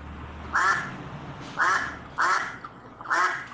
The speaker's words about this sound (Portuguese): Porém, pato, eu sou muito sensível e medo tudo me traz. Diga, seu pato, como é que você faz?